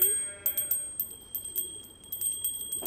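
A small bell rings rapidly and steadily, with bright metallic strikes repeating several times a second over a faint low hum, with no talking.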